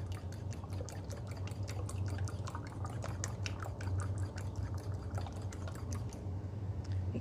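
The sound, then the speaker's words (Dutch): Eggs are beaten loose in a fairly large bowl without whipping in much air: a steady, rapid run of wet clicking taps for several seconds, with a low hum underneath and no talking. “Nu klop ik de eitjes los.”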